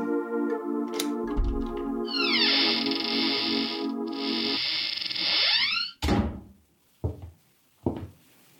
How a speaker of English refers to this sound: took the elevator up to the 10th floor, found the right door, and slipped in with a passkey.